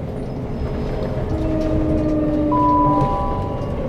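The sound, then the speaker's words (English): Steady rumble of a train carriage in motion as it approaches Lewes station, with thin whining tones from the motors or brakes sliding in and holding as it slows, no voices present. “We are now approaching Lewes. Please mind the gap between the train and the platform.”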